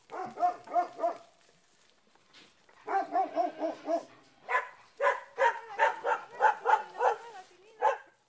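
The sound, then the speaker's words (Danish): Stray shepherd dogs bark on narrow mountain roads in southern Italy after dark, in quick, rhythmic bursts: a short volley, a pause, then longer runs of sharp barks that keep going until the end, with no talking. “Og hvor herreløse hyrdehunde og løsgående køer og muldyr – træsker rundt midt ude på vejene efter mørkets frembrud.”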